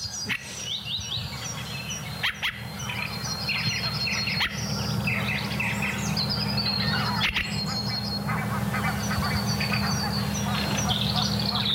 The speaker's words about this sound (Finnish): Hanhet pajattaa siellä taustalla.